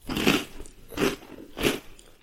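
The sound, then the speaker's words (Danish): Three crunchy bites of cornflakes, evenly spaced about every 0.7 seconds, each a bright crackling burst with a lower thud, with softer chewing crackle between them and no talking. “hvis I prøver at spise cornflakes om morgenen og knaser”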